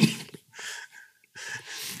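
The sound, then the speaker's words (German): A few harsh, breathy gasps coming in three ragged bursts with short pauses between, as someone catches their breath after choking on a drink. “Verschluckt oder ist es so schlimm mit Wasser?”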